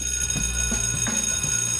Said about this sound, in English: Oh no, there's the bell. Streamiversity is over for today.